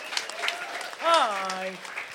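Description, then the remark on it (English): A crowd claps steadily throughout, a dense patter of hands, welcoming a contestant back on a game show, while one voice lets out a long rising-then-held whoop over the applause midway through. “Let's welcome him back.”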